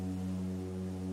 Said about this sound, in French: cette corne de brume